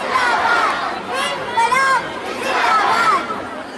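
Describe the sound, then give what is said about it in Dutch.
A dense crowd at a protest at Saaienbaak murmurs steadily, many overlapping voices blending into a continuous babble, with occasional rising voices standing out above the general hubbub. “je hoort veel geroezemoes en hoe dichterbij je komt hoor je nou ja, soms gezang, want eh, er, wordt veel gezongen.”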